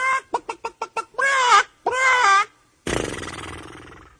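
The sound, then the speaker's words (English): A chicken cackles loudly: a quick run of six sharp clucks, then two drawn-out squawking calls, ending in a rough, noisy burst. “Say, how come that big white horse of yours cackles instead of whinnying?”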